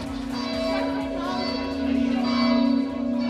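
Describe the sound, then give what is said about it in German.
Recorded church bells played from tape by a fairground showman, ringing continuously, a sustained, droning toll with rich overtones that swells slightly louder toward the end, on a Sunday morning for a church service held on the floor of his bumper-car ride. “Schausteller Ralf Jockers spielt die Kirchenglocken vom Band.”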